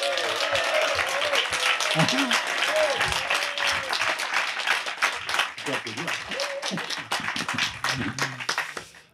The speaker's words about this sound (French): Applaudissements pour vous.